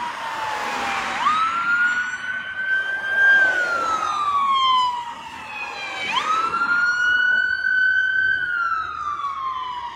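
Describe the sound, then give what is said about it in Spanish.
An ambulance siren wails in long rising and falling sweeps, loud, repeating twice over a background of street noise, at the scene where ambulances crashed. “Ok, entonces esa ambulancia que ven ahí terminó de hacer el traslado que traía esta otra ambulancia que chocaron.”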